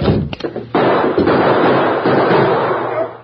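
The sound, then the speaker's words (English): A few sharp, loud cracks of gunfire, then a dense, sustained burst of rapid shots that rattles on steadily before tapering off. No one speaks. “Don't, don't, don't shoot again.”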